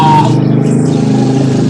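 A motorcycle engine drones loudly throughout, a steady low buzzing rumble with a slight rise and fall in pitch as it goes by. No one speaks.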